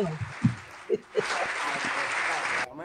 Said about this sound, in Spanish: No, yo puse mucho aplauso y no escuché el comentario.